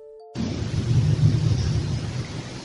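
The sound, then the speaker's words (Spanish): After a brief quiet moment, a loud burst of what seems to be rifle or submachine gun fire erupts at the La Mola military fortress on the island of Menorca, rolling on for over two seconds as a dense, rumbling roar, with no voices. “Pues bien, Aquí escucharemos una voz que dice son brazos de ira y a continuación una ráfaga de lo que parece ser un fusil o un subfusil.”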